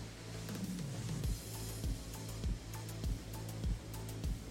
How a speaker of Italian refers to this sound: La sentite la pioggia voi nel frattempo?